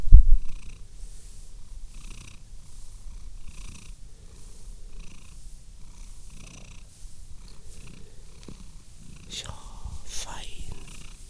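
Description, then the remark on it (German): A male cat purrs steadily, a soft continuous rumbling that pulses in a slow rhythm, with a brief louder rustle near the end. “schnurrt.”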